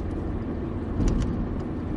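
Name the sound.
road traffic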